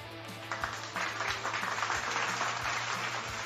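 A burst of applause for two young women: many hands clapping in a dense, crackling wash that rises quickly and holds steady for a few seconds, with a low constant hum underneath and no voices.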